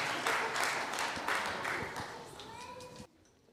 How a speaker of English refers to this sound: Let's give a round of applause. Thank you, everybody.